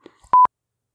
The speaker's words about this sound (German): Das ist übrigens auch der Grund, warum das Einwahlgeräusch über Lautsprecher ausgegeben wurde.